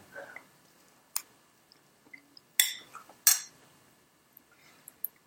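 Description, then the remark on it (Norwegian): Bowls of natto knock together in a toast, giving two loud clinks about a second apart after an earlier lighter tap, with soft rustling and small taps between. “Skål. No, Natto-skål.”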